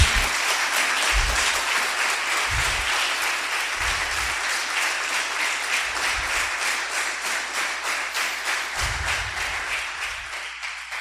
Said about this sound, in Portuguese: Pode aplaudir, porque é para Ele.